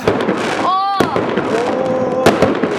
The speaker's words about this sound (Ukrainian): І після того за 10 хвилин починає дуже різко валити купа салютів.